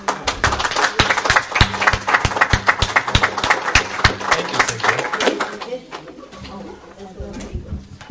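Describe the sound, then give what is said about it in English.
An audience claps together in a dense burst of applause for a guest speaker from Iowa Educational Services for the Blind and Visually Impaired at an ICUB gathering, lasting about six seconds, then it thins out and fades while a low murmur of voices continues underneath. “a big round of applause for you, and thanks for coming.”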